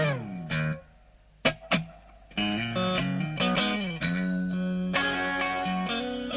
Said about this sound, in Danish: Og øh, noget af det, han også har i sin guitar, det er den der krøllede tilgang til akkorder.